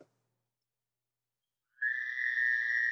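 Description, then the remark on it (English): After nearly two seconds of silence, a frog sound effect starts up abruptly: a chorus of frogs in a steady, high-pitched, buzzing trill that continues unbroken to the end, fairly loud and with no talking. “There's some frogs.”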